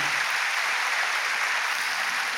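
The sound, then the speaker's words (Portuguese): An audience applauds steadily to honour the men and women of God present, a dense wash of many hands clapping at an even, sustained volume throughout, with no voices standing out above it. “Vamos dar uma salva de palmas para esses homens homens e mulheres de Deus maravilhosos que estão aqui.”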